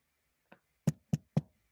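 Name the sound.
computer keyboard typing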